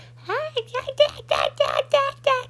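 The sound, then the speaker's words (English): A person's voice mimics a coyote's call with a rising whoop followed by a rapid series of high, yipping bursts, fairly loud, with a steady low hum underneath. “Trying to pretend like I'm a I'm a coyote.”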